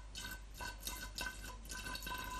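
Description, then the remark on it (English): Eight fluid ounces of brandy being measured out and poured from a bottle, with a steady run of soft, gurgling glugs repeating every half second or so, fairly quiet, with no one talking. “I'm just going to pour it in.”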